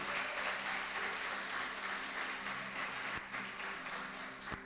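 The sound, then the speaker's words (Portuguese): A crowd gives a round of applause to the Lord, clapping steadily: a dense wash of many hands clapping at once with no pauses, holding an even level for several seconds. “Dá uma salva de palmas ao Senhor se você está comigo.”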